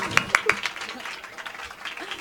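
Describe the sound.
A few sharp handclaps ring out, then fade into a soft, scattered patter of audience applause for a performer, with murmuring voices underneath, lasting only a couple of seconds.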